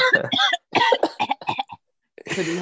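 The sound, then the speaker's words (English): A person coughs several times in loud bursts with short pauses between them, ending in one more harsh cough after a brief silence. “I'm holding in a cough, so we can end it.”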